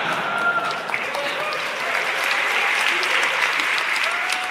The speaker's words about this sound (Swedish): Men eh, han behöver öva lite på de här konstpauserna för applåderna känner jag, eller? Eller, eller skaffa sig fler entusiastiska, mer än en person som klappar i publiken synkront kanske